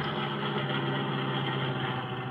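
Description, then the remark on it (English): A car engine idles steadily with a constant low rumble and hum as the car is parked around the corner from a dry goods store on Benner Street, fairly loud, with no speech over it. “Better park around the corner.”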